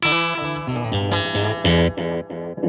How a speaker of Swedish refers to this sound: De tre understa rattarna kan även göra tape, age, och bas och, och diskant på, på själva ekot.